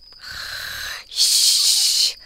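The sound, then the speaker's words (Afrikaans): A person fakes a snore for the story character Lulu, who closes her eyes and pretends to snore: one raspy, rumbling breath in, a short pause, then a loud, airy hiss of breath out. No words are spoken. “Lulu maak haar oë toe en maak asof sy snork.”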